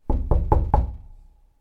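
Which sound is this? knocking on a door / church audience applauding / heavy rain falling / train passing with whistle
knocking on a door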